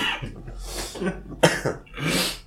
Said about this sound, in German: Oh, ich hab gehustet, Alter.